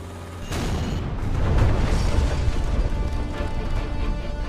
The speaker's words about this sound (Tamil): குன்னூரிலிருந்து ஏழு kilometre தூரத்திலும் Wellington ராணுவ பயிற்சி பள்ளியிலிருந்து பத்து கிலோமீட்டர் தொலைவிலும் காட்டேரி பார்க் எனும் பழங்குடியின சமூக மக்கள் வசிக்கும் நஞ்சப்பா சத்திரம் அருகே ராணுவ ஹெலிகாப்டர் வெடித்து சிதறியது